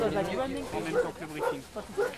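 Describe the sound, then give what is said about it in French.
A pack of sled dogs barks and yelps in an excited chorus before the start of a race stage, with sharp outbursts every half second or so over a busy outdoor murmur of voices as organizers brief the mushers on the stage. “La course va bientôt commencer et tous les jours, avant le départ, les organisateurs expliquent aux chiens et aussi aux mûcheurs, ceux qui conduisent les traîneaux, Comment va se passer l'étape c'est bien hein.”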